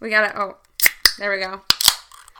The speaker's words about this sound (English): We're cracking a cold one for this one, friends. I this summer am loving the Leinenkugel's Juicy Peach. It's like a sour ale. i refreshing and tart with natural peach flavor.